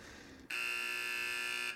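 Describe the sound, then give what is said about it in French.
A loud basketball buzzer blares suddenly after a brief hush and holds one harsh, steady electronic tone for just over a second before cutting off. “Buzzer beater.”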